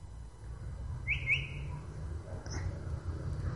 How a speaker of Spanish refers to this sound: Es un mimus. Está copiando, está hablando distintos lenguajes. Calandria, mimus saturninos.